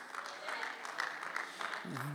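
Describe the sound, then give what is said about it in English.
A light, polite smattering of applause from worshippers during a sermon, soft and steady like a golf clap, with a voice starting to speak just as it ends. “That's a beautiful, sanctified golf clap”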